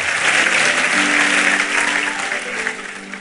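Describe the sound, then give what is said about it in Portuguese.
Sustained applause from a standing audience applauding God fills the space, a dense wash of many hands clapping at steady loudness, with a faint tonal hum underneath and a slight tapering toward the end. “Vamos aplaudir a ele, buscar em pé.”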